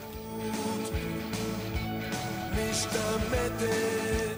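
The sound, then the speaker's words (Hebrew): A full band song plays steadily, the closing track of a successful Israeli album from 1987, with punchy drums driving a regular beat, kick and snare hits marking time under sustained keyboards or guitar, with no vocals heard. “ברקע אנחנו כבר שומעים אותו מתופף בשיר שסוגר את אחד האלבומים הישראלים המצליחים ביותר של אותה שנה.”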